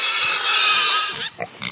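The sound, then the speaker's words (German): A loud, sustained high-pitched squeal from a domestic livestock pig lasting about a second, followed by a few short grunts and squeaks. “Schweine sind Nutztiere.”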